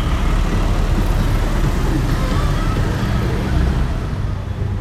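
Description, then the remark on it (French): Steady, dense roar of passing vehicles on a large avenue in a city centre, engines rumbling continuously with a broad wash of road noise and no pauses. “Quand le bimo s'arrête, nous descendons en plein centre-ville sur une grande avenue.”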